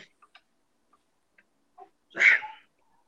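A dog gives one short whimper that rises into a brief yelp, preceded by a few faint clicks and taps.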